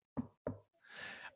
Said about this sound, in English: I'm going to knock. This is the sound of knocking on wood.